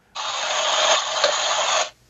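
A short burst of steady, hissing rain-like noise, a rain ambience sound accidentally triggered on a smartphone, plays from its small speaker, starting and stopping abruptly after under two seconds, thin and tinny with no low end.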